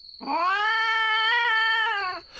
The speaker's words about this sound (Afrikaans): Maar toe hoor hulle krapgeluide. En die kat begin meau.